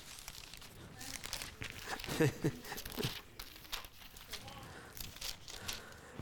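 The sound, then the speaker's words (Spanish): Pages of a Bible being turned to First John chapter 2: several quick papery rustles and crinkles over a few seconds, with a brief laugh and some voice mixed in. “Hojas, hojas.”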